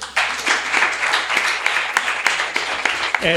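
An audience breaks into applause, a dense, steady wash of many hands clapping for about three seconds, with a voice briefly starting to speak as it fades.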